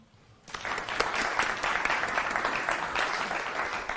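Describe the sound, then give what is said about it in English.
An audience bursts into steady applause for a guest speaker after a brief quiet start, a dense, even wash of many hands clapping that holds at a moderate level to the end. “Skal vi lige give ham en hånd?”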